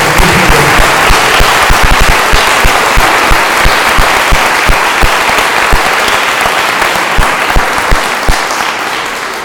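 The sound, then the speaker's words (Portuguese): A church audience claps hands steadily in praise of God, dense overlapping claps filling the whole stretch with a few sharper rhythmic beats standing out, loud and sustained with no talking. “Eu queria pedir a igreja que louvasse a Deus com as palmas, porque Deus merece.”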